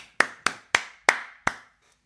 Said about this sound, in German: Mein ja, Applaus ja, an dich.